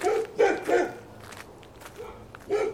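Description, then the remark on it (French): SS guard dogs bark as women prisoners leave the train wagons, in short, sharp bursts: three quick barks in a row, a pause, then two more, loud, with some background noise between them. “Les chiens des SS se jettent sur elles.”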